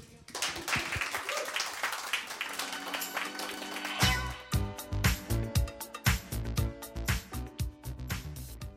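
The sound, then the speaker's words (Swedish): A crowd at Fontänhuset applauds with a dense, crackling wash of clapping for about four seconds, then loud rhythmic music with a heavy beat kicks in and carries on. “Ja, en applåd till.”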